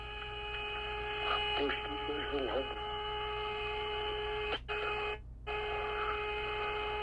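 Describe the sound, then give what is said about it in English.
Eerie, space-like electronic music with steady, sustained whistling tones over a low hum, briefly cutting out twice near the end; faint voices murmur early on. “That music even sounds outer spacey, doesn't it? You hear that? That whistling sound?”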